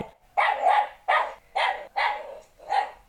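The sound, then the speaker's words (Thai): A puppy in front of the house, facing into the house, barks five times in a steady, evenly spaced rhythm to call its owner out to play. Each bright yap is clear, with brief silent gaps between them and nothing else in the background. “หรือว่าบางทีเราอยู่ในบ้านแล้วลูกหมาเนี่ย อยู่หน้าบ้าน หันหน้ามาทางในบ้านเรา แล้วก็เห่าเสียงแบบนี้ใส่ นั่นก็หมายความว่ามันอะเห่าเรียกคุณค่ะ มันอยากให้คุณนะออกไปเล่นด้วย”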